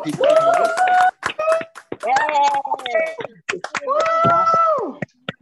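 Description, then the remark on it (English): A small group claps over unmuted microphones in scattered, uneven bursts while several voices whoop and cheer loudly over the applause, all sounding a bit compressed. “So, can we unmute our mics real quick and clap for People's Congress right now?”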